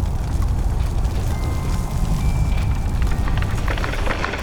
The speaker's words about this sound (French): Reste ici le temps que l'avalanche se calme. Bon, elle arrive.